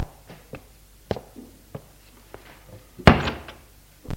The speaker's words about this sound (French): et ferme la porte.